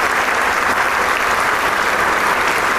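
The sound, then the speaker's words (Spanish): Sustained, dense applause from a large audience after an orchestral performance led by maestro Chávez, as the musicians also applaud each other; a steady wash of many hands clapping at once with no pauses, loud and continuous throughout. “Los músicos se aplauden entre sí, se felicitan, pero el público no deja de aplaudir.”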